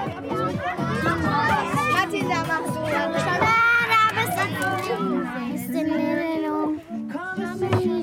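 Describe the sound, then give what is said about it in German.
A crowd of third- and fourth-grade schoolchildren at recess in the Zambabus, listening to music, high-pitched voices overlapping in constant lively chatter and shouts, loud and unbroken for the whole stretch. “Schau, es ist Pause und die dritte und vierte Klasse ist im Zambabus und sie hören schon die Musik, die vielleicht in 50 Jahren Oldschool-Musik ist.”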